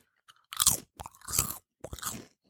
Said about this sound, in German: Ich entschuldige mich jetzt schon für die Chips, die ich jetzt gleich essen werde.